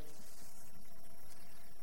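Servants pour water steadily into six basins of 100 liters each, 600 liters in all, at a wedding feast: a continuous splashing, gurgling rush at moderate volume with no voices.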